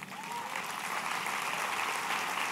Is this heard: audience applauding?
yes